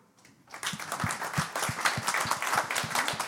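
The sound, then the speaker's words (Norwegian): An audience breaks into applause after a brief quiet start, cheering news that work is under way on an amnesty deleting drug-related fines, many hands clapping in a dense, steady patter that stays fairly loud throughout, with no voices over it. “Og det kan vi gi en applaus for.”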